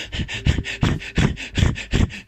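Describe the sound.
A voice imitates rapid, anxious panting, as of a person breathing extremely fast from anxiety: quick, breathy huffs repeating about every third of a second, fairly loud, with no words spoken.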